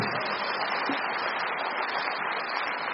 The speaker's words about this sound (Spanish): Un aplauso para Víctor Vera, claro que sí.